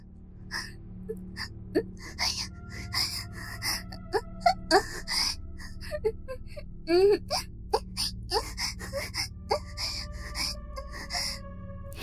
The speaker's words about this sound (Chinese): 在洪先生又吻又戳下，仙儿不禁发出了香艳热情的喘息声。